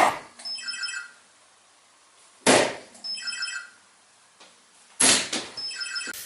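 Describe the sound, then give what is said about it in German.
Three darts thud into an electronic dartboard at steady intervals, each sharp impact followed by a short, bright series of electronic beeps, fairly loud, with no voices. “Ein Dartpfeil, der geworfen worden ist auf eine Scheibe.”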